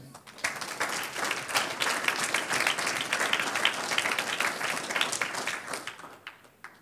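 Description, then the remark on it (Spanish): An audience breaks into steady, dense applause for the Lord that swells quickly, holds at a strong level for several seconds, then tapers off near the end, with no one speaking over it. “Un aplauso al Señor.”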